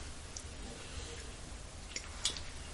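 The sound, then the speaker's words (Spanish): Someone takes the first quiet sip of the day of bitter, sugarless hot coffee from a cup in Havana on a cool, sunny morning, 20 January 2023: a few soft, brief slurping and lip sounds, the last slightly louder, over a steady low background hum with no talking. “Así que voy con este primer sorbito del día.”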